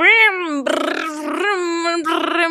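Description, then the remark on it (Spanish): A single voice makes a loud revving engine noise, sustained pitched buzzing with rough, sputtering bursts as the pitch climbs and dips over a couple of seconds; a man (Checo Pérez's father) pretends to drive an invisible car while leaving a Morena national elections commission meeting. “Expresó su descontento por los resultados y abandonó la reunión de la Comisión Nacional de Elecciones de Morena, manejando un auto invisible y haciendo ruidos de”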